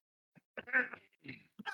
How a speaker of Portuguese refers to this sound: meu Deus do céu, esse foi o pigarro mais feio da história do humanidade.